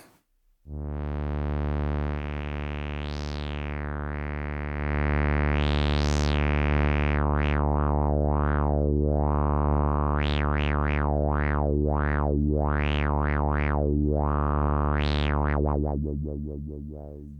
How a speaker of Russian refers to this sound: Мне теперь постоянно хочется воу-воу-воу-воу делать. Да, ну, в общем-то, по сути, работа вот лоу-пас фильтра с выкрученным резонансом — это и есть такой воу-воу-воу. Он немножко даже может становиться таким носовым.